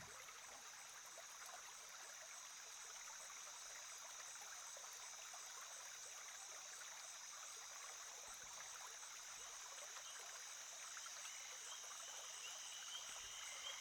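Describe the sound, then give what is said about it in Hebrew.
A steady, continuous wash of flowing stream water with a high, sustained insect-like shimmer layered on top, like crickets chirping; no voices, an even ambient bed throughout. “נוסיף את הצלילים של אה, שירת uh, צרצרים.”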